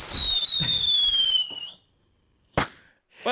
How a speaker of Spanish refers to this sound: Ese, ese, cohete sonó muy fuerte para la explosión que Le'Veon Bell hizo cuando lo botaron de ahí, ¿sabes?